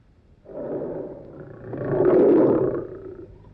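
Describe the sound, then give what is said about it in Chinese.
A tiger kept in a zoo roars once, a long, deep, rough growl lasting about three seconds that swells louder past the midpoint before trailing off, with no voices present. “可是这关在动物园里的老虎。”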